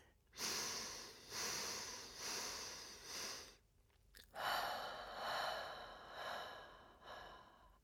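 Slow, deep breaths drawn in and let out during a guided breathing exercise, each in-breath and out-breath paced to a count of four, a series of long airy swells recurring steadily, fairly quiet with a brief pause midway and no talking.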